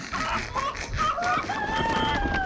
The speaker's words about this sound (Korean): 내가 작년에는 디아지 새끼랑 염소도 버스에다 싣고 다녔는데 이깟 닭 몇 마리가 뭔 상관이라고 그래요?